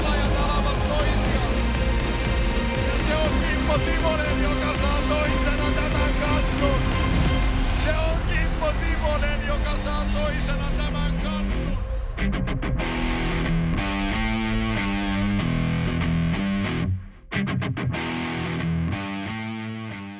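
A loud, dense, distorted theme jingle plays, then about midway its bright treble drops away so the music turns muffled and recessed, continuing steadily as a backing bed to the end.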